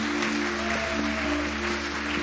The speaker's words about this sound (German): Lass uns hier mal einen Applaus geben.